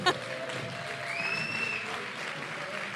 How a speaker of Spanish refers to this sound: Más aplausos mientras bajan.